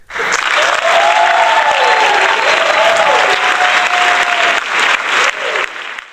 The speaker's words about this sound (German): Das Publikum ist ganz aus dem Häuschen. Jetzt brauchen wir so einen Einspieler.